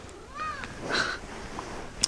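A cat meows a couple of times, first a short rising-falling call then a louder, longer meow, with faint background noise and a small click at the end.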